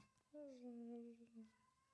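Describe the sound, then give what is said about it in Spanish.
A single long, drawn-out cat meow, clear, holding a steady pitch for about a second before trailing off, against a quiet background. “Eso es un gato, ¿eh?”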